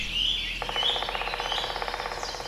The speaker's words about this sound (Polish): Wiatr szumi jeszcze po gołych gałęziach drzew, ale ptaki zaczynają już nieśmiało się nawoływać.